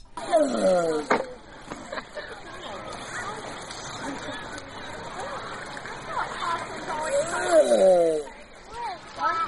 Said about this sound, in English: Now, if you took that and just sped it up a bit, uh, it would actually sound very similar. And then, of course, that same animal can make different sounds. But what you just heard was a tortoise having sexual intercourse.